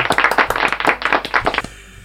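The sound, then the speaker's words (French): A short burst of applause, dense overlapping hand claps at full volume for about a second and a half, then cutting off quickly into quiet. “Allez, je m'envoie les applaudissements.”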